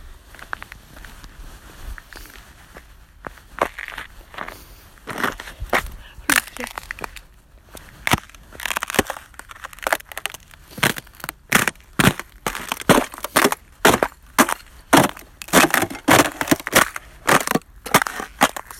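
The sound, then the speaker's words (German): Crisp crunching and cracking like ice being crushed, starting sparse and building into a dense, steady series of sharp snaps with faint murmuring underneath. “hört sich halt so an wie Eis. Also so ein Glas, meine ich. Aus Eis halt.”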